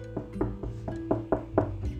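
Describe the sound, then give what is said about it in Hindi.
A quick run of about eight sharp knocks on a door, evenly spaced, with a steady tonal hum or music continuing underneath. “ऐसे कर कर बाला दरवाजे पर खटखटाता है”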